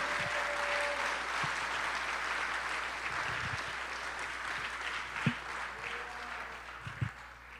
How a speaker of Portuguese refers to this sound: Aplauda o nome do Senhor, amados.